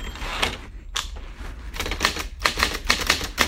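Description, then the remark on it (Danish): Mechanical typewriter keys clacking in quick, uneven bursts, fairly loud, with brief pauses between runs of strikes and no voices. “jeg har været ude at skaffe en skrivemaskine, så jeg kan, kan svare ham.”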